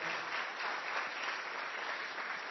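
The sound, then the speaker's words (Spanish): An audience at Iglesia Betel applauding to welcome a newcomer to the church: a steady, dense wash of many hands clapping at an even level throughout, with no distinct individual claps standing out and no voices. “Un aplauso para Eduardo.”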